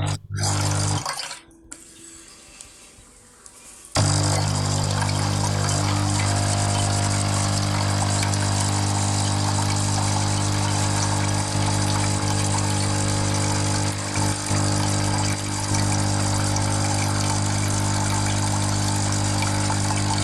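A Tchibo Cafissimo Pure capsule coffee machine runs with a steady, loud mechanical pump hum and strong low tonal drone, preceded by a brief quieter start; the droning continues evenly for about sixteen seconds with no speech.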